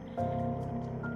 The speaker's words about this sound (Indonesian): Jadi kalau misalnya ini kalian mendengar suara bising di luar motor-motor lewat ya remak maklum karena gue lagi ada di pinggir jalan.